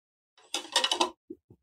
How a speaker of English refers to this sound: Guess what that sound is? That's right. I'm drinking Sovereignty's Purpose Plus. I love it. I drink it.